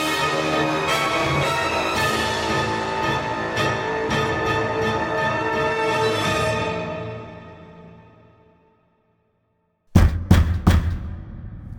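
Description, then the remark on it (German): Music fades out into a brief silence, then three or four loud, sharp knocks on the door of a ruin ring out in a quick, uneven series. “Das Klopfen kommt von der Ruinentür.”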